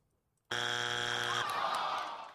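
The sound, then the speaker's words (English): A loud, harsh game-show buzzer signalling a wrong answer blares for about two seconds with a flat, raspy buzz, then shifts into a brighter, noisier tone before trailing off. No voices accompany it. “If you get it wrong, I'm going to go like this.”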